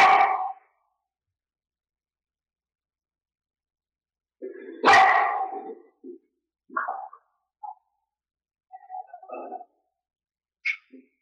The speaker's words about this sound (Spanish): Se sientan en la hierba, sienten la hierba, oyen a los perros ladrar los pájaros.